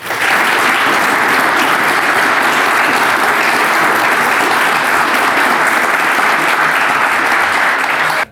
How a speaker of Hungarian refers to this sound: Szeretnék kérni egy tapsot neki.